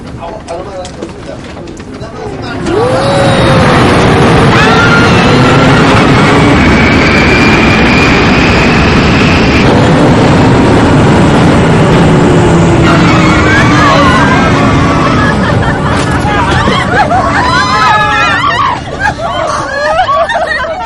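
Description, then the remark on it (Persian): A loud, steady roar of an airplane engine in flight rises after a quieter start, with whining tones and overlapping crowd babble and agitated voices throughout. “گوش کنید گوش کنید بی خودی حالت دست این بیشعور نشید گور بی خودی هم نزنید عالم و آدمم بخواد این هواپیما نمیتونه بشینه چرا؟”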